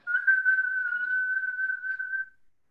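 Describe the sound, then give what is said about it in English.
A tea kettle whistles as it boils: one steady, shrill tone held for just over two seconds with a slight waver, then cutting off abruptly. No one speaks. “Now, once you got the fire under the tea kettle, are you going to stand there and wait for it to boil?”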